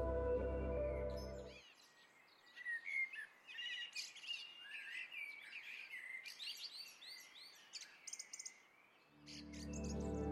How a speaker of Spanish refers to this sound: Recuerda los sonidos que te acompañaban al ver el atardecer. Tal vez el suave sonido del agua el cantar de los pájaros.